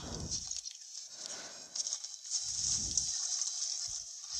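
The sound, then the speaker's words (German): Water splashes and sloshes in a few soft, swelling bursts over a steady background hiss, moderately quiet, with no voices. “Wasser.”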